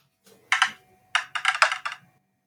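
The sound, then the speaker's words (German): A digital dice roll from a dice app: a brief clattering rattle, a pause, then a quick run of four or five crisp, clicky bursts, clear with no voices. “wir streiten uns gerade schon vor der Aufnahme über die Würfel-App, die wir verwenden sollen”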